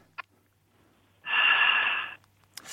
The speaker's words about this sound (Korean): 예, 먼저 숨소리부터 한번 들어봅니다. 자, 숨소리 들을게요.